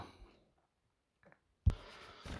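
household object, rustling paper

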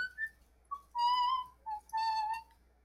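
human body sound, person whistling loudly

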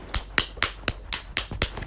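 crowd, brief clapping

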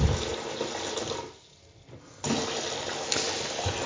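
household object, running water

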